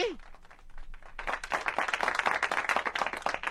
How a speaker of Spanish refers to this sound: Mira, es, da, da, dame otro aplauso para que se oiga mucho, mucho. Eso, eh. nuevo, nuevo, nuevo, el mismo botón.